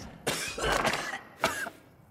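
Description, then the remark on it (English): Two dry, raspy coughs demonstrating a symptom of coronavirus, a longer harsh one followed by a short sharp one after a brief pause, with no talking around them. “Second, a dry cough, like this.”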